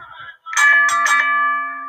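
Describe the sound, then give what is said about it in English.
A wrestling ring bell is struck three times in quick succession at the referee's call, loud, its bright metallic tone ringing on and slowly fading afterward, with no voices over it. “The referee says ring the bell.”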